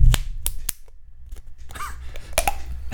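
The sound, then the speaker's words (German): Sharp pops of beer in PET bottles being opened by twisting off their screw caps, several quick snaps spread across a few seconds, followed by a soft fizzing hiss and small handling clicks; no talking. “Gut, dann brauchen wir zumindest keinen Öffner.”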